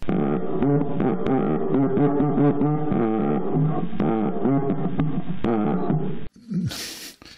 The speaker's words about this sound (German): Eine Cuica ist ein Zylinder mit einer Membran, also wie eine Trommel. Durch diese Membran ist ein Stock gesteckt und durch die Reibung des Stocks